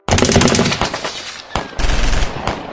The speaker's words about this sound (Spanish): Después de un intercambio de balas, logran neutralizar a la mayoría.